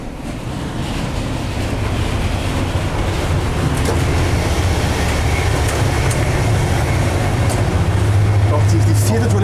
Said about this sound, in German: Dieser Zug scheint ja überwiegend auf diesen alten Erste-Klasse-Wagen zu bestehen.